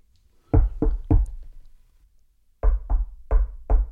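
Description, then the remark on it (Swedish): Heavy knocks resound through a ship's metal hull, a group of three followed by a pause and then four more, each with a deep booming body and a short ringing tail. “Ja, vad är det där som knackar?”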